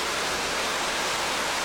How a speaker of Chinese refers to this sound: 这瀑布所带来的力量、生命的力量。